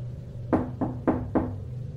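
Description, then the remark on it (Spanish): Four firm knocks on a door, evenly spaced in two pairs, over a steady low hum, with no voices. “Una vez estaba pasando por ahí, estaba cerca de la puerta caminando, cuando escuché que otra vez tocaban, y en cuanto lo hicieron abrí.”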